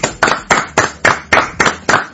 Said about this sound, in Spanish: Un aplauso para Natalia Reich.